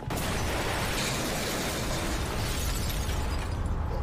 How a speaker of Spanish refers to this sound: Cinco explosiones acuden a Manhattan. Los oficiales de policía se dirigen a las respectivas escenas del crimen. La explosión más grande sucede en el distrito financiero.